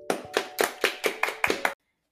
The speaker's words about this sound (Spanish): El día de hoy tenemos una invitada muy especial, pero antes un fuerte aplauso.